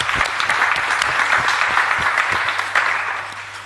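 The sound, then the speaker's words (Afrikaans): An audience claps for South African Paralympic athlete Hilton Murray: a dense crackle of many hands sustained at an even level throughout, with no voices standing out above it. “Geef een schouder door, ik 'n lekker hande klap.”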